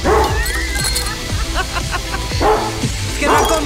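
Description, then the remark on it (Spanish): A dog barks and whimpers in short, excited bursts, fairly loud, with a busy, cluttered background throughout. “¡Amárrame ese mendigo perro!”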